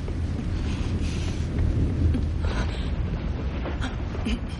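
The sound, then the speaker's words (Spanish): A deep, continuous rumble of thunder rolls through a stormy soundscape, steady and fairly loud for several seconds, with a broad hiss of wind and rain behind it. “Los relámpagos iluminan la casa.”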